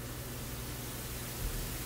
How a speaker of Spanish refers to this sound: Ruido brillante. Seleccionado. Ruido brillante.